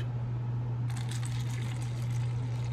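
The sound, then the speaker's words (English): Coffee being poured into a cup: a steady, bright liquid trickle begins about a second in and continues evenly over a constant low electrical hum, with no talking. “All right, one more cup of coffee.”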